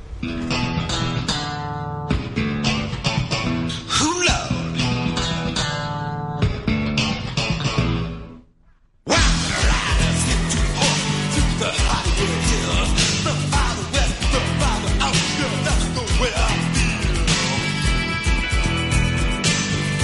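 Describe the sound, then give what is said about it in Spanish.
A loud rock song with driving drums and dense guitars plays, dropping out briefly partway through before the full band crashes back in and keeps going. “Vamos a escuchar el primer tema y seguimos contando un poco de los primeros pasos”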